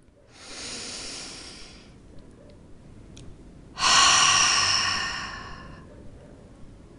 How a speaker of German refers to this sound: Lass uns zuerst dreimal gemeinsam tief ein und wieder ausatmen. Wenn du ausatmest, gerne was loslassen mit einem Geräusch.